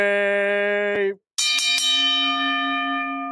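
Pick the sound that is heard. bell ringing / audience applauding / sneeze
bell ringing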